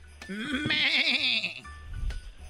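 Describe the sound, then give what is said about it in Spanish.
A person imitates a goat's bleat with a single wavering, quavering call lasting about a second, fairly loud, followed by faint background noise. “¿Cuál es este ruido? Eh. Uy. ¿Qué? Chivo.”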